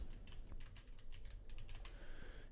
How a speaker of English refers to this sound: As uh, you can hear me uh, type there, it's the Michael David Winery and uh, they've got really cool artwork on the bottles.